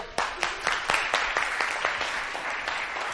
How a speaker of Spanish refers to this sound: La terapia cognitiva fue desarrollada por este señor que es uno de mis ídolos personales y para el que pido un gran aplauso.